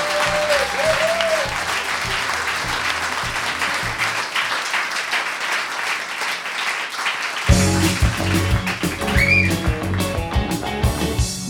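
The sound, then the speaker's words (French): An audience breaks into sustained applause for the sponsors and Jean-Martin Assange, dense clapping throughout, with a couple of brief whistles rising above it and a swell of low crowd noise partway through. “S'il vous plaît, on applaudit nos commanditaires et Jean-Martin Assange.”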